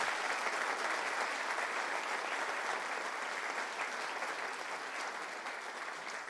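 An audience practices clapping their hands together in a dense, steady burst of applause that stays loud throughout and eases off only slightly toward the end, with no individual claps standing out.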